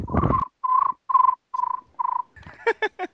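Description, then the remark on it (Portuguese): A cricket sound effect chirps loudly on its own in a steady series of short tonal pulses, finishing with a few quicker, higher-pitched chirps. “Faz o grilinho aí, solta o grilo.”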